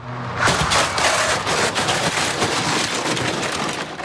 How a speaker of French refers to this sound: Une voiture vient de percuter un scooter à 50 km heure. Le mannequin est au sol.